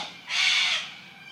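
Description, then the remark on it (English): A single harsh, raspy bird call rings out outdoors in Australia, lasting about half a second, with no voices and only faint background ambience around it. “And how much can we receive from these beautiful birds here in Australia?”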